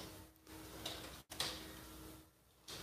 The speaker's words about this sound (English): That sound you hear is my notes printing out for the best show you're ever going to see.